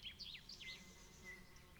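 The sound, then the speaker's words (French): A bee drones faintly at low pitch as it passes by, while small birds chirp and twitter above it in quick, high, repeated notes. The scene is quiet and outdoors, with no voices. “Une grenouille coasse, une goutte d'eau qui tombe dans la mare, une abeille qui passe par là.”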